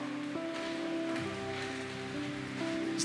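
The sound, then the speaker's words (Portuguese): A steady, dense roar of heavy rain fills the scene without a break, with a faint low humming tone running underneath and no voices. “Irmão, a chuva tá forte, hein?”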